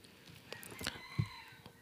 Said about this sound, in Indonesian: Ada ayam lagi.